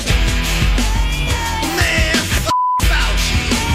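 A single short, steady censor beep cuts into a loud, busy song, briefly silencing the music before the track resumes.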